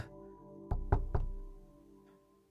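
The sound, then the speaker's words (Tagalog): Three firm knocks on a wooden door, evenly spaced, followed by a low lingering hum and a faint soft tap near the end; no one speaks. “Sino yan? Ako. Buksan mo nga kaagad yung pintuan.”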